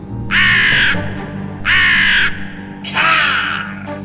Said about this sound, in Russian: Однажды, когда после общей трапезы я беседовал с клириками о тайнах священного писания, на подоконник раскрытого окна сел ворон и громко закаркал.